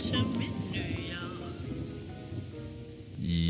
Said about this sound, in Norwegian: Der var jinglen over, vet du. Det var en veldig koselig jingle. det var litt sånn deilig søndagshumør på den.